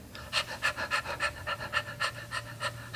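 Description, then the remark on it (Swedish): A dog pads about with rapid, rhythmic panting, steady breathy puffs about three per second with no talking over it. “du hör lite tassar bakom dig. Och så hör du en tennisboll som dunsar ner bakom dig.”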